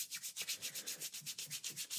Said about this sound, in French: Maintenant, je vous invite à frotter vos mains l'une contre l'autre, face interne contre face interne, puis avec votre main droite au-dessus de votre main gauche,